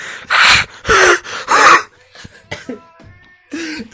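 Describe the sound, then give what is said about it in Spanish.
A person imitates a wheezy, squeaky cough like a toy penguin: three loud raspy bursts in quick succession, followed by quieter breathy wheezes and a thin whistling tone, ending with another short rasp. “Mi se lo empezó a agarrar un poquito y al toser como el en el pingüino de Toby.”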